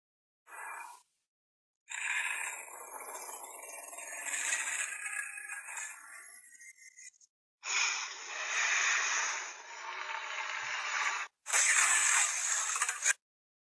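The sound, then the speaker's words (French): A dinosaur cry: a brief raspy burst followed by three long, loud, breathy hissing roars with short pauses between them, noisy and wheezing rather than tonal, with no talking. “C'est le dinosaure qui écrit comme ça.”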